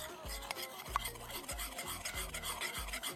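About three pieces of charcoal being crushed into small pieces: a gritty, rasping grind repeated in steady strokes about every half second, each with a dull low thump, and no voices.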